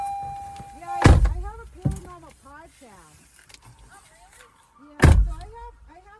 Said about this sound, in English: Okay, um, let me get out of the car.